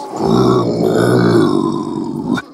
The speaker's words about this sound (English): Are you growling at me?